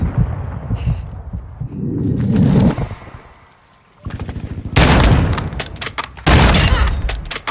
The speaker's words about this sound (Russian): Я кайфую от графики, от динамики, от звукового дизайна, от того, как отлетают противники, встретив залп из моего дробовичка.